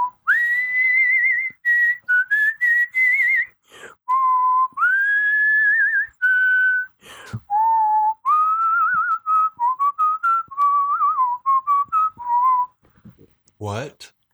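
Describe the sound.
A person whistles a slow, sustained melody alone, clear, with long held notes gliding between pitches and brief breaths between phrases before trailing off at the end.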